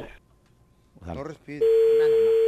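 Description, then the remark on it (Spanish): After a brief bit of talking, a loud, steady telephone dial tone starts and hums on unbroken until the end, as a call is placed to someone's husband in Michoacán. “Mi amor, ahí, ahí le estamos marcando a tu marido, eh, allá mi Michoacán, nomás no haga, no haga ruido, ¿ok?”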